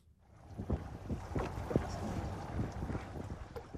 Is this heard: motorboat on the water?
yes